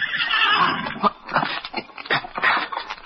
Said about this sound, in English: Then he was suddenly startled by a warning whinny from his horse Victor.